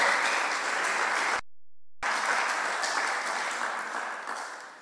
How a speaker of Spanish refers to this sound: Pero me gustó otro aplauso porque quiere decir misión cumplida. Hicimos nuestra parte en esa obra.